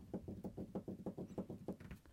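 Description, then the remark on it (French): Rapid, steady tapping on a desk to test how a Sennheiser Profile condenser microphone picks up handling noise, a dozen or so dull knocks in an even rhythm over two seconds, fairly soft and muffled, with no voices. “Écoutez par vous-même, je vais taper sur le bureau.”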